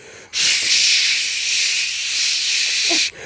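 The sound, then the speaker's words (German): A voice imitates the hiss of someone crouched behind a car and urinating, a steady hiss lasting about three seconds, starting and stopping abruptly with no speech. “Und plötzlich hört er nur, wie irgendjemand so an sich an seinem Auto festhält, sich da hinhockt hinten und dann einfach losgeht.”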